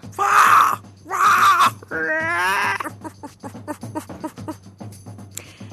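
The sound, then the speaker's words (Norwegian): Two Norwegian men in costume imitate a fox, loud: two harsh screeching yelps, then a wavering, warbling whine, then a run of quick chattering clicks over a low steady hum. “Men hva lyd lager egentlig reven?”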